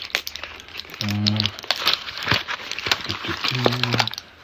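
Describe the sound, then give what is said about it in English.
Pills rattle in crinkly packaging as they are taken, a steady run of plastic crackles and sharp little clicks, with two short hummed voice sounds breaking in partway through. “Sorry, talking and doing pills. So, apologies for the rattling.”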